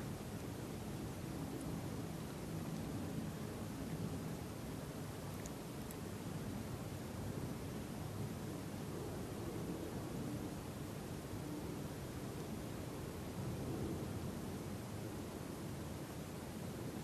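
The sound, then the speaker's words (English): A steady, low roar of an airplane passing overhead, a broad rumbling wash that holds fairly even throughout with no voices. “Like the sound of that plane.”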